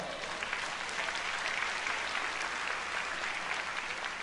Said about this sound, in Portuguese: Você acredita nisso? Glorifique e aplaude o nome do Senhor.